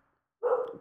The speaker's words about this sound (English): or not out there, he's downstairs, but he's barking away at something. So if you can hear that, I apologize.